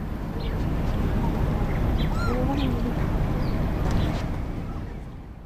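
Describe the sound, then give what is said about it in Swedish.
Several gulls cry and squawk over a steady outdoor hum on a warm summer day in Brunnsparken park in Helsinki, by sunlit water, their calls rising and falling for a few seconds. “Det är en varm sommardag med måsars skrik i luften och solblänk i vattnet.”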